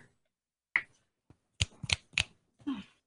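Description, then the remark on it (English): Four crisp finger snaps ring out with no one talking: a lone snap, a pause, then three quick snaps in a row. A softer, brief rustle follows at the end. “When I snap my fingers, you will wake up feeling like the great new person you are.”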